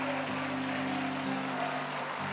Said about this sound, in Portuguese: Alguém pode aplaudir o Senhor, celebrar.